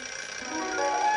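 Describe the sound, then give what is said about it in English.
An alarm clock rings in a steady, continuous metallic jangle that grows slightly louder over about a second, with no voices present. “The alarm clock always rings two minutes of the dream.”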